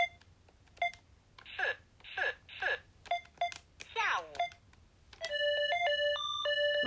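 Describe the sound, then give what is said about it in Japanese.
A Chinese talking calculator in its sound mode gives short electronic beeps between bursts of clipped, synthetic Chinese speech, then breaks into a loud, continuous beeping electronic melody over the last couple of seconds. “あなんかなんか始まっちゃったできない助けてください皆さんああなんか始まっちゃった音出るモードがあるんですけどなんか音出るモードがうまくできなくてなんか割と中国語が暴走してます”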